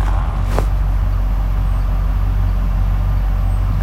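Steady low engine rumble and road noise fill the interior of a moving bus, with a brief rattling click near the start and a constant droning hum throughout.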